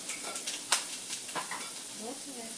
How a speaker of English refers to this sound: I am just giving some uh, some sound So effects. Some sound effects. All the grease popping and... Yeah, it probably sounds really extra, but it's... And it's, it's really not. All I did um, is put a little oil